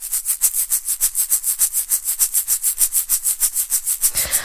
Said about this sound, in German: Ich habe mal eine Rassel aufgenommen, einfach ähm, mit 100 Beats per Minute und die klingt so.